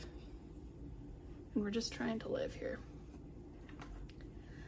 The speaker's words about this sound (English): If you can hear that in the background, that is my air conditioner. Like I said, it's hot